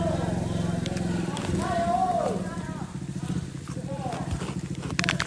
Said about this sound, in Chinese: 哇，摩托车耶！